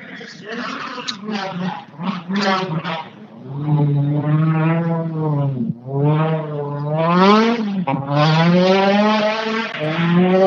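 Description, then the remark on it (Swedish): A Toyota Corolla rally car pulls away hard from the start at Himmelstalundsfältet, its engine revving up through several gears with rising and falling harmonic sweeps, loud and continuous for about ten seconds, with no voices over it. “Hörde starten där när han drog iväg med Corollan.”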